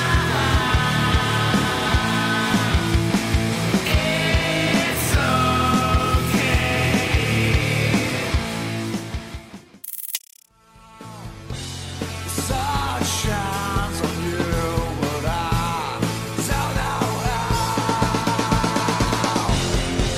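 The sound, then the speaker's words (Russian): Two back-to-back excerpts of loud grunge rock songs in the style of a band, both performed by people, one with generated music and lyrics and one written by a human, with dense distorted guitars, bass and drums behind a sung lead vocal, separated by a brief silent gap midway. “В заключении рубрики спикеры прослушали два варианта песен, созданных в стиле группы ….”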